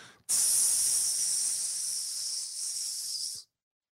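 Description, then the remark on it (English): A person imitates a cobra's hiss with one long, steady, loud hissing breath lasting about three seconds, with no talking during it. “The snake comes up, the cobra will be like,”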